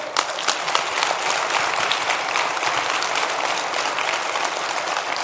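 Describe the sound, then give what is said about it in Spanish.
Loud, sustained applause from an audience, a dense wash of many hands clapping at a steady level for several seconds with no voices on top. “Así que ese fue un fuertísimo aplauso”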